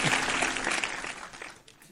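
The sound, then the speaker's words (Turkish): An audience applauds steadily after a live song performance, a dense wash of clapping hands that stays fairly loud before tapering off slightly toward the end, with no one speaking over it. “Bir alkışalım.”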